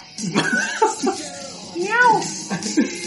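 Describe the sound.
Someone voices a cat's meow, a drawn-out rising and falling wail, surrounded by short bursts of other vocal sounds and what may be chuckling.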